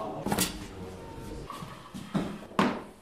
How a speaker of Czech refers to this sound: S celým vozíčkem se opět posuneme k dalším šatnám